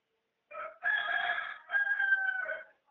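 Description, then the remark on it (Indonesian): A rooster crows once, a loud drawn-out cock-a-doodle-doo in several strained, harmonic-rich segments lasting about two seconds, with no talking. “berisik ya suara ayam ya apa berisik ya suara ayam”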